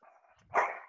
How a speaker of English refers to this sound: sorry my dogs are going crazy today there must be something going on outside. I'm sorry about this.